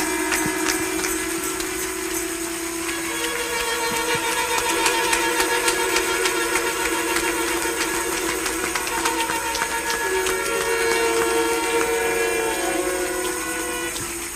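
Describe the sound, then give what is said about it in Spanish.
A standing church audience applauds the Lord loudly and steadily for about fourteen seconds, a dense wash of many hands clapping at once, with sustained crowd voices humming and calling out underneath. “Y denle un aplauso al Señor de todo corazón.”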